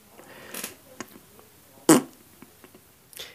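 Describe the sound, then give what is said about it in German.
A short, loud fart bursts out near the middle, preceded by a few softer rustling, squeaky noises and followed by another brief blurt at the end. No one speaks. “Wenn irgendjemand richtig schön guten Pups lässt oder laut rülpst, da muss ich immer lachen.”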